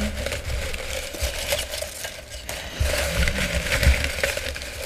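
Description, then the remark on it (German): Rustling and crinkling of a second paper slip being handled, with irregular crackly bursts that stay fairly quiet and continue for several seconds without any talking. “hört, dass es raschelt.”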